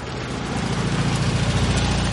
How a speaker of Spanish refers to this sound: El coche medio huevo pasa ante ellos.